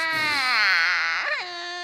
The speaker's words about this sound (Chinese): 突然，他听到一户人家传来哭声，老虎精快速的躲到门外偷听。